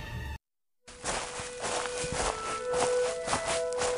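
After a brief silence, a steady series of footsteps thuds along out of the darkness, slowly growing louder as they approach, over a dark, droning background.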